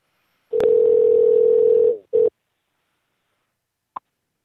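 A phone call to a man rings out: a steady electronic tone held for over a second, a short second beep, then a brief click after a pause as the unanswered call goes to voicemail. No one speaks.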